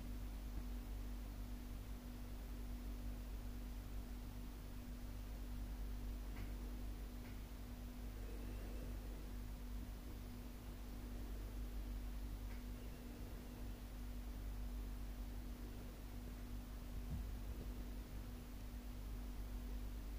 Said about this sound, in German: Wo kein Hintergrund ist? Na doch, der Kühlschrank. Hm. Den Kühlschrank hört man ja.